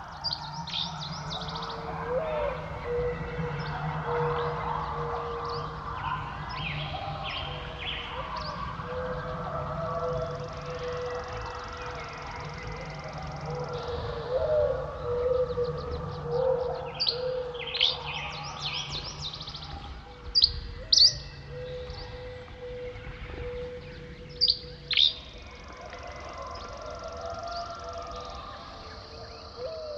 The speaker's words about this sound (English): One final call before heading off to sleep, giving the day over to the song of birds.